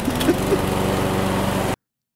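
A lawn mower engine running at about 7,000 RPM while a lawn is mowed, heard from the other side of a garage door, drones steadily and fairly loudly, an even motor hum with no change in pitch for a couple of seconds before cutting off abruptly.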